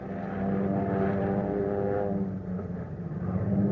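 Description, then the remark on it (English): A propeller airplane engine drones steadily overhead, a loud, continuous rumble with a throbbing tone that dips briefly before swelling again, with no voices. The plane is one of the Lend-Lease planes sent to Britain for defense and attack. “Planes for defense and attack.”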